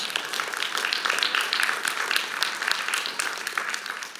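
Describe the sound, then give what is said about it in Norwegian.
A church audience applauds its 20th anniversary in 2023, many hands clapping in a dense, even patter that holds at a fairly loud level throughout, with no voices rising above it. “Det er faktisk verden applaus.”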